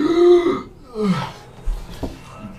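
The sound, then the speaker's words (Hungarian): A voice imitates a man gasping for breath as he comes to: a strained, voiced rasp, then a shorter wheezy gulp and a few breathy catches, fairly loud, with no words spoken. “így levegő után kapva kicsit, kicsit magá, magához tér, magához tér.”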